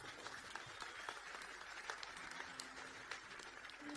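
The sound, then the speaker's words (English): An audience claps their hands to thank God at the preacher's call, a dense, steady patter of many overlapping claps that carries on evenly throughout at a fairly soft level, with no one speaking. “ready to further the cause of humanity with your money, clap your hands and thank God.”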